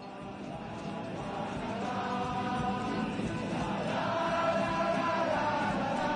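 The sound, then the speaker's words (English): A large crowd sings together outdoors during the 2019 uprising in Chile, backed by countless strummed guitars, a dense, steady wash of voices and strings that swells slightly louder toward the end. “It shows countless guitars accompanying a crowd singing … …”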